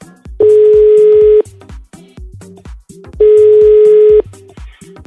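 A phone line's ringing tone as a call is placed again: two long, steady electronic tones, each about a second long, separated by a pause, over a repeating patter of short clicky background sounds, with no talking.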